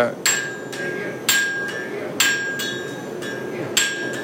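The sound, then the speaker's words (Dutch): Metal hammer blows ring out at a steady, unhurried pace, about seven sharp strikes with a bright metallic ring after each, over a low background rumble, as a boy of about 12 to 14, a park guest wearing safety clothing, forges a knife at the Dollywood theme park. “een mes te smeden.”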